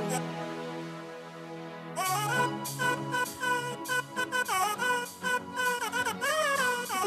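A short musical piece built from sampled fart sounds: a steady droning chord opens, then a loud, bouncy melody of pitch-bending, buzzy tones plays over a beat with no talking.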